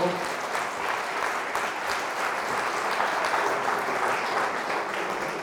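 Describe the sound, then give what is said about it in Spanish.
Sustained applause for God from an audience after a prayer, a dense steady wash of many hands clapping at once, fairly loud and continuous throughout with no speech over it. “Denle un aplauso a Dios, por favor.”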